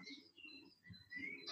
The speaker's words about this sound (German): was ich beobachtet habe, das ist mein Telefon